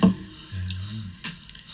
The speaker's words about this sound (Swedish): Du hör, han ligger och, och eh, nästan sover ja. eller är avsvimmad. Det är oklart vilket. Men ja. det är liksom en, en pipande, väsande, ganska långsam andning.